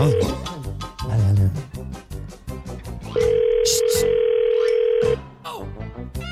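A telephone ringback tone sounds once on an outgoing call to an ice-pop seller, a steady, fairly loud hum lasting about two seconds, with busy background sound and voices before and after it.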